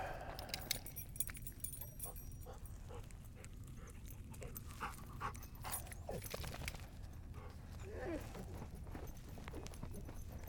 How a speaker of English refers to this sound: Lock up my car.